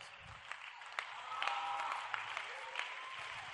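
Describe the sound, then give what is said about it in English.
An audience at a sermon claps steadily in a dense wash of applause, with sharper individual claps popping out and a few raised voices cheering through it for a few seconds. “Come on and clap your want and shout.”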